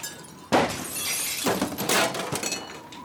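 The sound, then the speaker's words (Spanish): A loud, sudden crash as a table is knocked over, followed by a vase shattering, with several bright bursts of breaking glass and scattering shards over about two and a half seconds. “mesa derribada, jarrón roto”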